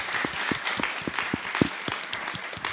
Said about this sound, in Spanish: Un aplauso, por favor.